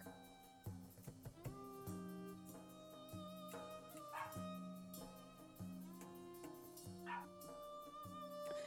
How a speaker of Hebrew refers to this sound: אתם יכולים לשמוע את הכלב נובח בחוץ. אני מקליטה לכם את התוכנית ממעוני החדש בקיסריה.